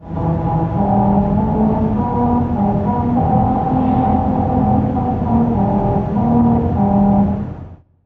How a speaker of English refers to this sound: special grooves were cut into the pavement that cause these notes to ring out as you drive over them